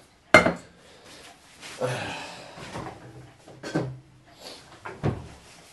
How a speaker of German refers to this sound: Und ich frage mich gerade, warum ich den Topf mit Wasser fülle, wo ich doch Milch brauche. Also, zurück auf den Herd mit dir.